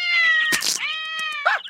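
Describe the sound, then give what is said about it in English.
A cat lets out a long, drawn-out yowling meow, broken by a sharp hissy burst, then a shorter meow at the end, loud with no talking. “cats!”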